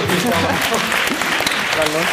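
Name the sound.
applause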